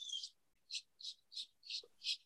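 Tropical birds calling in a steady series of six short, shrill, high-pitched bursts, evenly spaced about a third of a second apart, fairly faint and distant, with no talking.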